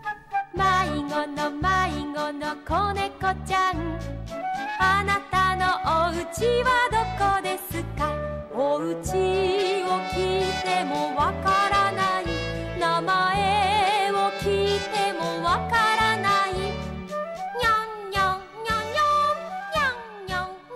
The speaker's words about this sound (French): Donc euh, c'est euh, une comptine pour enfants d'un chien policier. Et je vous laisse écouter ça.